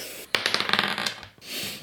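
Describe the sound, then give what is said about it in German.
A die clatters across a hard tabletop: a sharp first strike, then a quick run of small rattling bounces that settle within about a second. Fairly loud, with no voices. “also wenn ich, wenn ich ungerade würfel, bin ich Arzt.”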